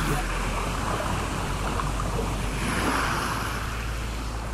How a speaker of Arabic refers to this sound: لا شيء سوى موج البحر خلف ظهورهم وعلى بعد عشرين ميلا يقع الساحل البريطاني